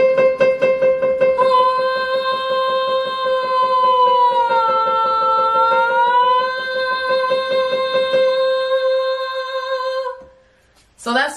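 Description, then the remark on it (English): A single sustained sung note, steady and fairly loud, demonstrating a vocal slide: it starts purposely too sharp above the note and glides gradually downward to too flat, below the note, partway through, then settles. It ends abruptly after about ten seconds, with no talking. “And now I'm going to slide down to too flat or too low below the note.”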